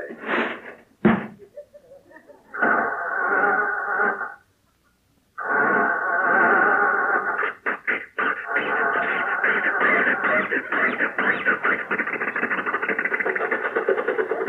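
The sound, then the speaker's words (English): An old car parked in front of a house sputters as it tries to start: a click, a wheezing crank that cuts out, a pause, then a loud, stuttering chug that catches and keeps rattling along. “Jump in, Rochester, see if it'll start.”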